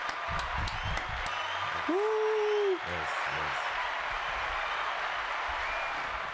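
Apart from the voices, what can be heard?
clapping and applause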